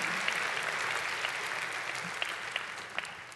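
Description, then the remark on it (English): An audience claps steadily, a dense wash of many hands at a moderate level with a few sharper individual claps popping out near the end, and no voices over it. “Come on, if you're going to clap, do it everything.”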